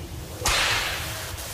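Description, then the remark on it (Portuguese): One sharp crack of a fly whisk swung by an arm and striking the ground lashes out suddenly and loudly, followed by a hissing, noisy tail that fades slowly over a low background rumble. No voices. “quando do nada um chicote de moscas, vocês veem tipo ele balançar o braço e várias moscas se colocam numa posição e ele bate no chão.”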